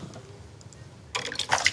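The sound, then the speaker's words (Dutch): After a quiet moment, a short burst of liquid sound: water spurting and splashing with a hissing, gurgling quality for under a second as a small plastic bottle of water is squeezed. “Ik heb een heel mooi flesje water meegenomen.”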